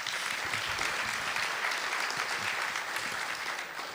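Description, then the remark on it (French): Steady, dense applause from an audience for a guest who is a doctor in molecular biology, a continuous crackle of many hands clapping at an even level for the whole stretch, with no voices standing out. “Et on peut l'applaudir.”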